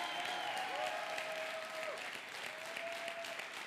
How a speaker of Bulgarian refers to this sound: О, ръкопляскай, ако вярваш.